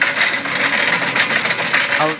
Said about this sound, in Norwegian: rutsjer rundt på tralle. Jekketralle! Ja, jekketralle.